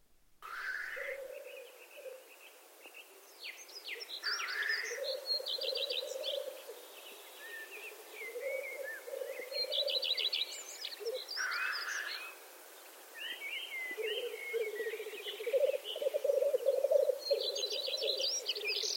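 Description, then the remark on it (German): Black grouse calling in repeated low, bubbling cooing phrases that rise and fall for several seconds each, while other birds chirp and trill higher up throughout. “Hören wir uns kurz den Ruf des Birkhunds an.”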